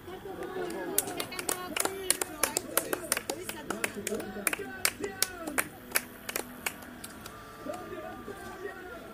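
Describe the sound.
Applause from a concert audience: a burst of sharp, irregular claps from a modest crowd, loud for several seconds before thinning out, with voices murmuring underneath throughout.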